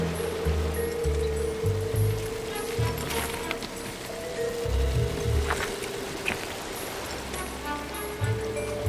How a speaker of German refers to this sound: Der Wasserfall war zwar hoch, aber nicht sehr kräftig.